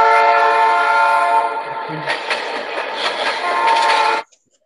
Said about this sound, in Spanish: Bueno, este, era la alarma. La, esa es la alarma.